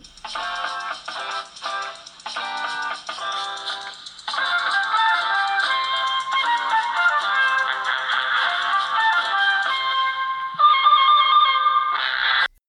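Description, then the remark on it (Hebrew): A mobile phone rings with an incoming call from its owner's father, a bright, melodic electronic ringtone, starting in short repeated bursts and then playing a steady, sustained tune, loud, with no voices. “ועכשיו גם הטלפון שלו מצלצל.”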